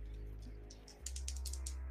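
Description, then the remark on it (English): Two dice tumbling across a tabletop for a stress roll in a tabletop role-playing game, a quick flurry of small, hard clicks and rattles, rising in the second half and fairly quiet against a low background hum. “I got a three and a one, but I have two cool dice.”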